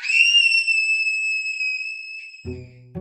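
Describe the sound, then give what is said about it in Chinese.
A single shrill, piercing scream held at a steady, very high pitch for about two and a half seconds, then cut off by a short burst of low, rumbling noise. “下一秒，我发出海豚音般的尖叫声。”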